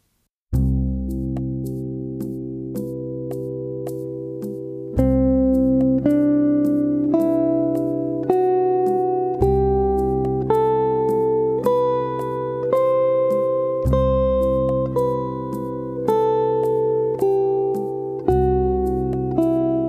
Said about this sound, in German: war Schritt 1, also einfach mal die Tonleiter zu einem C Major 7 Playlong nach oben und nach unten üben, dass man die überhaupt erstmal auf seinem Instrument irgendwie im Griff hat.